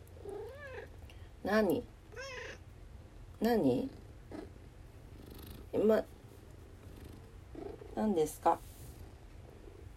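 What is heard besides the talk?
cat meowing and purring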